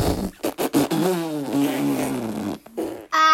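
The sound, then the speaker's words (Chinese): A loud, drawn-out cartoon fart sound effect of a super big fart from a cute bear teacher character opens with a few short sputters, then becomes a long, buzzy, wavering blast. A brief, higher-pitched tone closes it, with no voices. “不不不不不，可爱熊老师居然放了一个超级大屁！”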